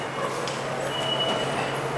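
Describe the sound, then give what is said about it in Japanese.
A loud, steady roar of a subway train moving through the underground Nagatacho subway station, with a broad rushing rumble and faint high metallic whines over it, and no one speaking. “永田町にいますえ永田町の地下鉄の駅にいまして”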